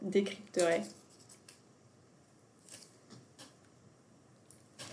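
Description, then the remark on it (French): A brief voice at the start, then soft paper crinkles and rustles in a few scattered bursts as the first of several small folded paper slips is picked and opened. “Bah, vas-y, je t'invite à choisir le premier papier.”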